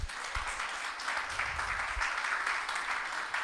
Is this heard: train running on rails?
no